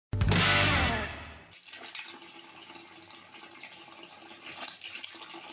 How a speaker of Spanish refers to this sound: ¿Sabes que ver el agua cayendo en un balde así da mucha sed?